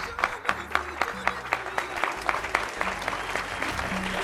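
An audience applauds, a dense, steady rattle of many hands clapping that holds evenly for several seconds, with a low sustained hum running faintly beneath it.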